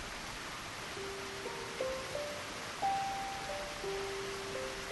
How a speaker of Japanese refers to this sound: 雨の音だけが店内を支配した